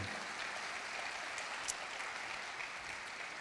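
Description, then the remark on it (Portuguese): A Portuguese-speaking church audience applauds the word of God steadily for a few seconds, a dense, even wash of clapping with no voices standing out above it. “Aplauda a palavra de Deus, por favor.”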